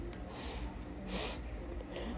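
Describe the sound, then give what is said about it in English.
Several short, breathy sniffles from a person with allergies, spaced about a second apart, with a slightly longer one in the middle, quiet and without any talking. “Um, by the way, guys, if you guys hear me sniffling a lot today, I have allergy problems, so.”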